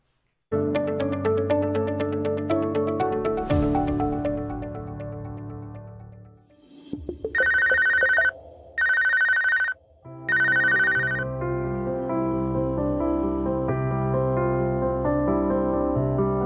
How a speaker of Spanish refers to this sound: estaba yo trabajando cuando recibo la llamada y pues me quedé sin habla. Sonó el teléfono, contesté